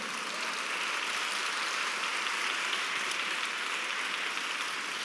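A church audience breaks into loud, sustained applause for the Lord, a dense, steady wash of many hands clapping at once that holds evenly for about five seconds with no voices above it.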